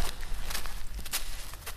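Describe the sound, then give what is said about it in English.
Slow footsteps crunch along the side of a house, a few steady steps over a low background rumble, with no voices. “Footsteps along the side of the house.”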